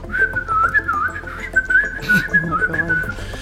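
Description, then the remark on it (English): A bright, cheerful whistled melody runs continuously with quick bouncy note changes, fairly loud, over a soft instrumental backing with a brief noisy burst partway through, heard during an elevator ride. “and like it's this like really positive like upbeat whistling even though you see like you know, Tension.”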